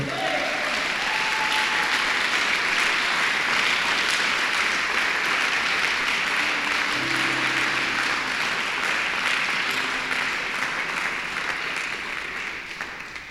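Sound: audience applause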